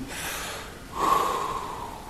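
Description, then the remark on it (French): A deep, sharp inhaled breath, a gasp, starting as a soft airy intake and rising into a louder, slightly raspy pull of air. No talking. “On prend une plus grande respiration.”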